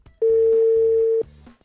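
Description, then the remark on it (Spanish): A steady, mid-pitched telephone dial tone sounds loudly for about a second as the show Entre Copas y Juegos calls its sixth and last participant, then cuts off abruptly, with faint low murmuring underneath and a few soft beeps afterward. “Estamos llamando aquí a nuestro sexto y último participante.”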